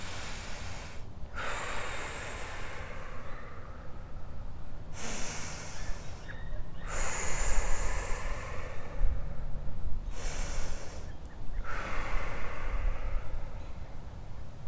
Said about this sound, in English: Now take eight deep breaths.